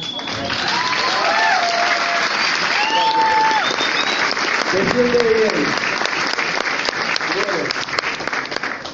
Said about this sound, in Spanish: Si quieren pueden aplaudir más fuerte, lo conozco también.